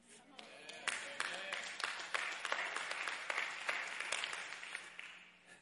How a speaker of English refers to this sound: Like three of you clapped.